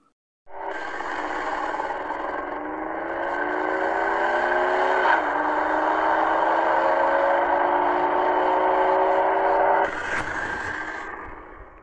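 A car engine hums steadily for several seconds as the car drives past on a road, its pitch shifting slightly as it moves past, then the sound cuts off. No one speaks.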